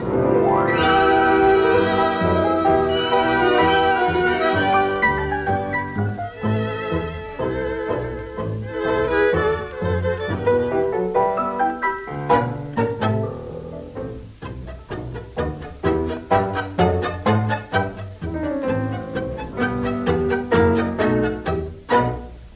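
A tango played by an orchestra with a male singer, opening with a sustained, vibrato-laden melodic line before shifting into crisp, marked staccato beats.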